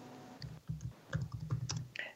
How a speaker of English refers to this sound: Okay, so I'm typing those.